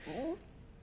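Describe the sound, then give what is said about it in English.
A male dog yawns, a short rising-and-falling whine lasting about a third of a second, clear, followed by quiet background noise. “That was my dog. I'm sorry, he yawned.”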